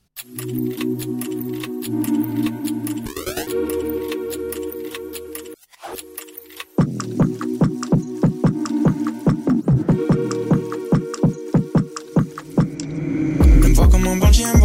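A rap beat plays loud and up front, opening on sustained synth chords, dropping out briefly, then kicking back in with punchy, steady drum hits and deep bass. No vocals.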